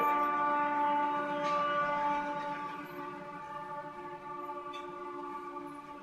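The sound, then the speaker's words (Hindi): A train passing by, dominated by a steady, layered horn-like drone with several stacked pitches that holds for about six seconds and eases slightly in loudness, with no talking. “क्या ये Back to Godhead Express गाड़ी है जो जा रही है”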